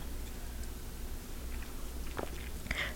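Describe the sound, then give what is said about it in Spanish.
A quiet sip of bitter coffee, the first of the day: a soft slurp and mouth sounds near the end of a hushed stretch, with no talking. “Así que voy con este sorbito amargo.”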